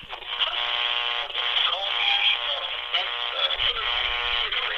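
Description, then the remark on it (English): A tinny, narrow-band radio broadcast plays steadily for several seconds, its voices and tones smeared by a constant layer of static hiss and crackle. “So there's our staticky radio intro.”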